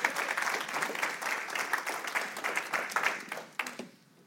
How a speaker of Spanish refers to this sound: ¡Wow! Un aplauso al Señor, hermano.